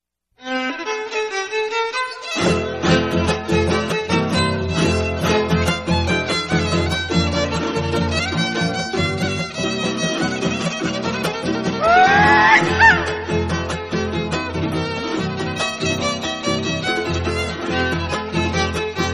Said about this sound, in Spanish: Bueno, compañeros y compañeras, hermanos y hermanas, los invitamos ahora a escuchar un son huasteco, que es la música que se toca por allá en Tamaulipas.